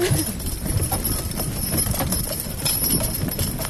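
Steady clip-clop of horse hooves pulling a sleigh on a sleigh ride along a woodland trail at Paul Smiths: a continuous rhythmic trotting over a constant low rumble and faint hiss, with no voices.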